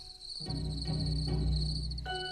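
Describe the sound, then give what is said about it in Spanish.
A cricket chirps in a steady, continuous high trill, clear, over a low sustained hum with a few soft thumps; no one speaks. “Había una vez un grillo que tocaba el piano.”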